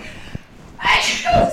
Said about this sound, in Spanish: Ay, voy a estornudar,